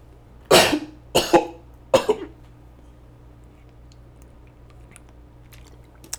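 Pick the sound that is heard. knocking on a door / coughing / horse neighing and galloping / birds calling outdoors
coughing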